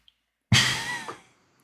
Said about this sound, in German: Gesundheit.